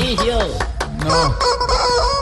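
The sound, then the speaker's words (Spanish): A squeezed toy rooster lets out a rapid string of loud, nasal honks and squawks, repeating irregularly for a couple of seconds. “no me borra toda hora con el gallo apretándolo y haciendo bulla.”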